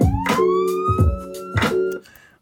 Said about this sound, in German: Jetzt können wir mal überlegen, wie wir diese, diese Sirene einarbeiten, die ich sehr essentiell finde für, den, für das Jingle.